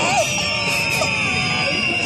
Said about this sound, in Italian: Ma perché mi fischiano? Non ho fatto nulla!